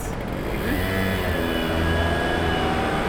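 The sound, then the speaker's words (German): Steady outdoor ambience of a city square with continuous traffic rumble, a low engine drone rising slightly as a vehicle passes, and a faint higher whine above the broad background noise. “Nimm die Geräusche auf vom Platz”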